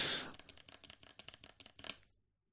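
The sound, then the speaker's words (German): A quick, uneven run of crisp clicks from mechanical keyboard keys being typed, fairly quiet, after a brief soft rustle at the start, with no voices. “Also ich bin mit dem Klang dieser Tastatur, ist äh, so, wenn der hier irgendwie ich muss sagen, ich habe vor 20 Jahren es für eine technische Errungenschaft gehalten, dass man die Tastatur nicht mehr hört.”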